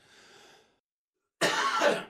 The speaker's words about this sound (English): this damn cough will not go away. I, am throwing everything I can at well, it.